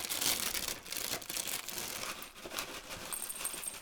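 Plastic packaging, of muesli and organic yogurt, crinkles and crackles continuously for a few seconds, a dense, bright rustling with sharp little snaps, steady in loudness and with no voices.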